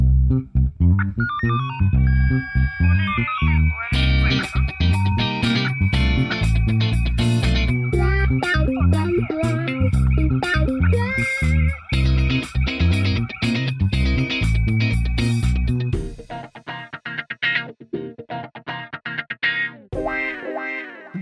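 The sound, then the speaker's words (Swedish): A different-than-usual upbeat electronic intro theme plays loud and steady, with bouncy, twangy synth notes over a driving beat, then thins out into a few sparse, scattered tones at the end. No voices. “Märkte du att det var en liten annan melodi idag?”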